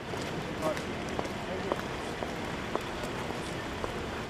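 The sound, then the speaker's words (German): Wet, squelching footsteps of people tramping and tottering through slush on a promenade at an uneven pace, scattered crunchy thuds over a steady hiss of watery street noise, with a faint murmur of voices in the background. “Leute aus aller Welt stöckeln und stampfen durch den Pflutsch.”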